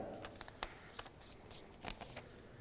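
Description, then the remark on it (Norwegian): Crisp rustling and creasing of paper as a sheet is folded by hand into an origami paper plane, with several sharp crinkles and presses scattered over a few seconds and no one speaking. “Nå er vi nesten, nå er vi der vi kaller nesten papirfly, oss eh, origamifolk som er kjent med papir.”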